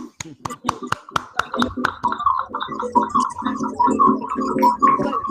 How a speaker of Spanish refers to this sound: Un aplauso, amigo.